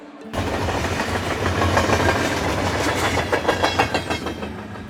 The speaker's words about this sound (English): There goes the local train.